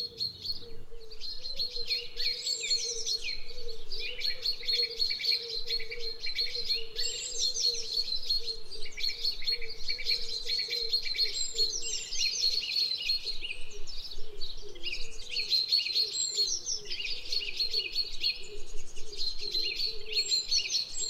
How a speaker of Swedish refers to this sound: Varje papegoja har ett unikt rop som den använder för att identifiera sig själv. Biologerna kallar det för papegojans kontaktrop.